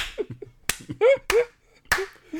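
Three sharp, crisp hand claps at a slow, even pace, about half a second apart, with brief voiced murmurs and vocal sounds between them.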